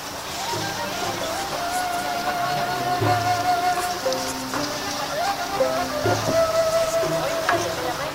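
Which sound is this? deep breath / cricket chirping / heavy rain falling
heavy rain falling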